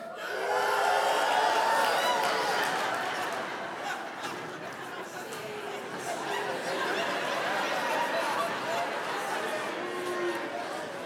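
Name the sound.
audience applause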